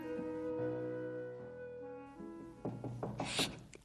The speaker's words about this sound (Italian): All'improvviso qualcuno bussa alla porta.